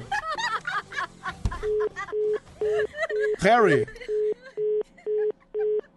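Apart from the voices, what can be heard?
telephone line tones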